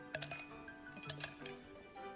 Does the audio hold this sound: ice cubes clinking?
yes